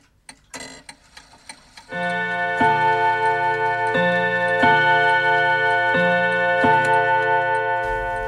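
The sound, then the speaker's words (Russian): A few crisp clock ticks lead into a series of resonant chimes striking one after another, each ringing on and overlapping as the clock sounds the hour. “Часы пробили, при последнем отголоске их боя я вошел в отель «Б» и спросил Толбота.”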